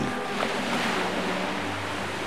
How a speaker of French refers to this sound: Bientôt la mer étale. Et cette musique, cette musique de vagues, aujourd'hui très tranquille.